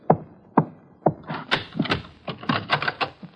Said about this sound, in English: About two o'clock, I went up to my room to change. Shortly after, there was a knock on my door. Who's there?